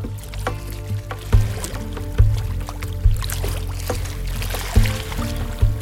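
Water of Lake Constance (Bodensee) laps beneath a wooden jetty between Lindau and Bregenz, with irregular hollow slaps and knocks every second or so over a steady low, sloshing wash. No voices are heard.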